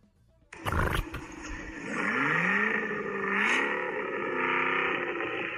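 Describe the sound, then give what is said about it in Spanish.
The engine of a new Cadillac Escalade-V, an SUV of nearly 3 tonnes, starts with a sharp burst, then roars and revs loudly, its pitch climbing and dipping through a deep, throaty growl, with no talking. “Suena como una AMG GT. GTR. Y es una Cadillac Escalade por que no.”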